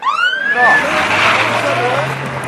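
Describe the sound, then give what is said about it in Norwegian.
A police car siren gives a short rising whoop, then the police car suddenly speeds off in Arendal, with loud engine and road noise filling the rest of the moment. “Det der er en politibil som plutselig får det travelt og raller av gårde.”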